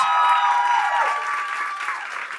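crowd, audience applauding and cheering

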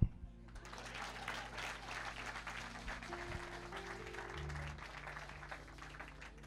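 crowd, audience clapping

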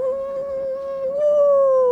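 animal, wolves howling

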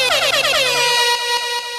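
sound effect, air horn sound effect

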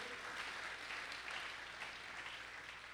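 crowd, audience applauding

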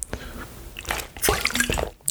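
household object, water being poured out

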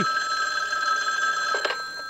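signal or alarm, telephone ringing

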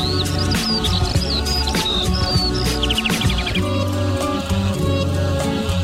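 bird, birds singing

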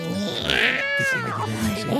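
animal, cat meowing

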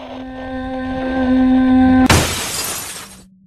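sound effect, window glass shattering

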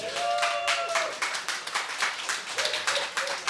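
crowd, audience clapping

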